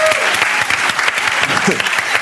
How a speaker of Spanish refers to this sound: Un aplauso a los últimos cinco años